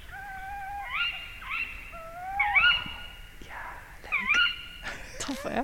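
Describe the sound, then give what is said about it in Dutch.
A male and a female tawny owl calling back and forth among old trees: the male's wavering, quavering hoots overlapping with the female's sharper, shrill rising 'kiwi' calls, repeated several times, fairly loud against a quiet background. “Hoe klinkt de bosuil?”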